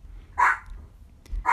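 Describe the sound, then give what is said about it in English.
A dog barks twice, two sharp, fairly loud woofs spaced about a second apart, with a soft low rumble and a faint thump in the background between them. “And there's noises from above, so if you hear the dog barking,”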